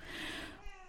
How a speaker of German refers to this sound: Und, oh, sorry, das ist die Katze. Die schleicht hier gerade um meine Beine und ich glaube, die wird gleich mal raus.